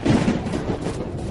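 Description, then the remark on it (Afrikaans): A deep, sustained rumble of thunder rolls steadily through the whole moment, loud and low-pitched, with no voices over it. “Driekie Dassie, wat by haar huis in die grond net langs die veldpaadjies voordeur staan, hoor die donder weer.”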